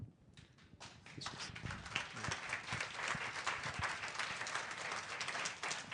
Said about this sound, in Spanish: ahora puedo decir con toda seguridad que esos aplausos que ustedes acaban de, de llevar a cabo y de darme, definitivamente yo quiero que sean solamente para Dios. Que los aplausos se los lleve Él y no yo.